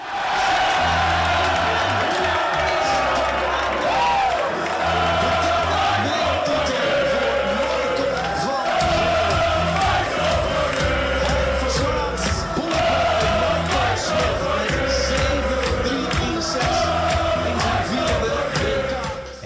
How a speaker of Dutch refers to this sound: Ik wil daar even naar eh, luisteren. Je hoort hier 400 man die helemaal losgaan naar je winnende pijl in de WK-finale tegen Michael Smit.